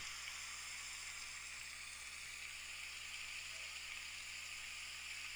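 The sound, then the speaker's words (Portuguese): Rain falls in a steady, even hiss with no distinct individual drops, holding a constant soft level throughout, with a faint low hum underneath and no voices. “Imagine que nesse momento que você escuta o barulho de chuva é como se o sol fosse aparecendo com uma luz mais forte ainda.”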